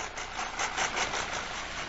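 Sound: tractor engine running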